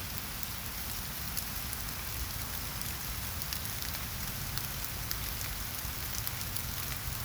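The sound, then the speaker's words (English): Steady rain patters on a hard surface, a dense, continuous hiss of drops with scattered sharper ticks, even in loudness throughout, with no voices. “Listen to the rain. Enjoy the pitter patter the drops.”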